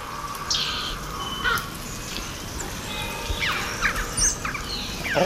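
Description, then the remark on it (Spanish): Several carrion crows caw harshly in a forest over a steady outdoor hiss, joined by a deeper croak of a raven in the background, with scattered chirps of small forest birds such as great tits, blue tits and long-tailed tits in the background. “Hay cuervos, ah, hay cornejas y está al fondo la un cuervo,”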